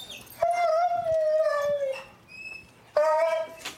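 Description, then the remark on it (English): A black and tan coonhound lets out a long, loud, mournful howl that slowly falls in pitch, pauses with a thin whine, then starts a second howl, with no talking. “Every morning at 6 a.m., she would howl for, to be fed.”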